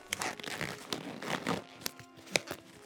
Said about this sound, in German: Das Klatschen von Gummihandschuhen, die fest übergezogen wurden, knallt durch den Raum.